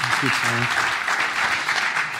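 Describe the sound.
An audience at Hope Kirche applauds a speaker in a steady, dense wash of clapping that holds for the whole stretch, with a short burst of voice briefly audible at the start.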